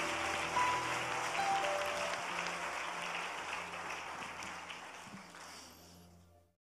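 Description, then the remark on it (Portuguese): A church audience applauds for Jesus, a dense wash of many hands clapping at once that holds for several seconds before cutting off abruptly, with faint low hum beneath. “Aplaude-se para Jesus.”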